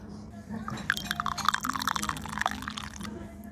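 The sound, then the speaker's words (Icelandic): Barley coffee pours into cups, a steady splashy trickle with bright little gurgles and drips that runs for about three seconds before tapering off. “Nú bygg kaffið, komið.”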